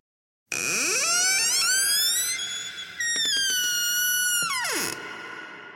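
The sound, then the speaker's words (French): A door creaks open by itself, slowly, in one long, drawn-out squeal that rises in pitch, wavers with a few stuttering groans, then slides back down and fades. No one speaks. “La porte s'ouvre d'elle-même dans un grincement terrifiant.”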